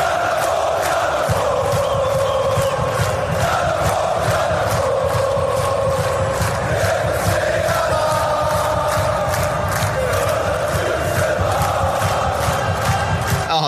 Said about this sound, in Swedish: nu vill vi höra klacken igen.